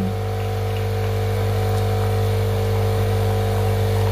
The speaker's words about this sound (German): Die Maschine macht ein bisschen Lärm, aber das ist natürlich noch nicht ganz so schlimm wie ein Kaffeeautomat, der malt. Die sind lauter.